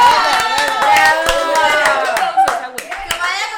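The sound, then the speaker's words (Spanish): An audience applauds in a steady burst of many hands clapping, sharp overlapping claps running throughout with a murmur of voices underneath. “Un aplauso para el público, gracias.”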